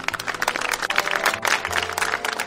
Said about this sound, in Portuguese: que linda interpretação, gente. Palmas pra ele.